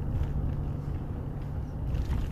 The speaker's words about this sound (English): What the fuck is that? Some sort of post-apocalyptic school bus. What the fuck's going on there?